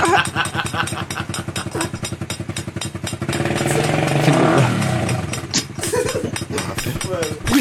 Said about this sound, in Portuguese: Mano, olha o barulho que da hora. Dá pra você saber o que, que é a colher e o que, que é a moto. Se liga.